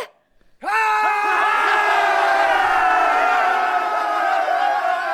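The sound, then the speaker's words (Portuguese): A loud crowd erupts into sustained shouting and cheering after a brief moment of quiet, answering a call to give a shout, many voices yelling together in one long, dense roar. “Você não é bagunceiro? Você não tá me ouvindo? Dá um grito aê!”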